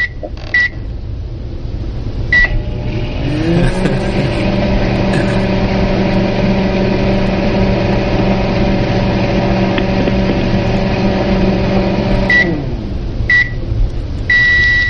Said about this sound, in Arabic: ايوه ده جهاز آه، تسخين الاكل ده ميكروويف مايكروويف عمل الصفاره والصدى